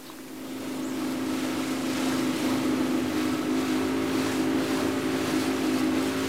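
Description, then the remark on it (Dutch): A boat's engine drones steadily with a low, constant hum as the boat travels from Bandanera, the main island of the Banda Islands, toward Lontor (Great Banda), building up over the first second and then holding loud, with wind and water rush over it. No one speaks. “zijn nu met de boot vertrokken van Bandanera, het, eh, het hoofdeiland van de Banda-eilanden.”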